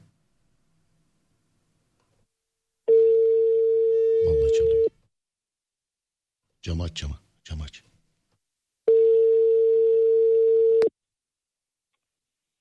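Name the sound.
telephone ringing tone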